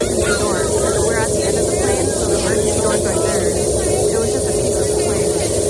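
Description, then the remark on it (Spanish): Inside the cabin of a Boeing 737 MAX 9 airliner carrying more than 170 people, after a window and part of the fuselage blew out mid-flight about 35 minutes after takeoff from Portland, a loud, steady roar of rushing wind and engine noise fills everything, with a low hum beneath and faint voices barely audible. “Así se escuchaba desde dentro. En él viajaban más de 170 personas. Se trata del Boeing 737 MAX 9.”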